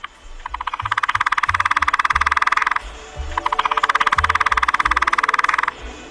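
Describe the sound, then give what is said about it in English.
Two sustained bursts of rapid drumming by a Lewis's woodpecker, each a fast, even roll of taps lasting a couple of seconds, separated by a short pause, with soft low thumping underneath. “Its churring calls, often heard in mating season, and its uncommonly heard drumming.”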